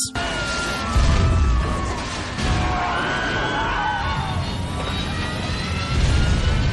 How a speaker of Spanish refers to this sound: El vuelo inicia y a los pocos minutos el avión comienza a fallar, haciendo que exploten los motores.